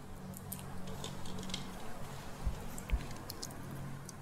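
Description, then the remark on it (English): Quiet crackling and soft squishy clicks as the shell is peeled from a boiled egg for ramen eggs, with a couple of slightly sharper taps near the end and no talking. “Okay, there's one. See, that's pretty fast. Okay, let me peel the next.”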